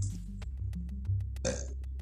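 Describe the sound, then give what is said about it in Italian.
A long, deep burp rumbles for about two seconds, with crackly breathy bursts breaking through its low, drawn-out drone. “Ruttesco, rotturdo.”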